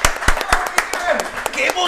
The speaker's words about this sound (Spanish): Qué bonito, fuerte aplauso